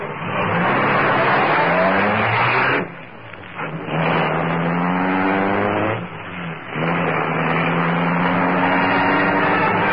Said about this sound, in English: Kato pressed a button. The great car roared into life. The section of wall in front raised automatically, then closed as the gleaming Black Beauty sped into the night.